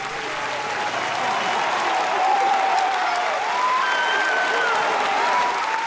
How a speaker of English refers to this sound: When it concluded, everyone was wiping tears and applauding